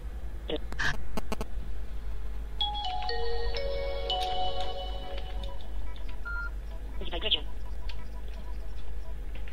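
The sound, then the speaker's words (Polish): A mobile phone plays its short startup greeting after its PIN code is entered and accepted: a melodic electronic jingle of several stepped, sustained tones, preceded by a few quick clicks and beeps, over a steady low hum. “Telefon mnie przywitał.”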